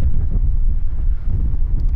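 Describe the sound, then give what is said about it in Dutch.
Strong wind on the Erasmus Bridge in Rotterdam roars and buffets the microphone in a loud, constant low rumble with gusty fluctuations, and no voices are heard. “Waar allemaal leuke dichters zijn en ook minder wind.”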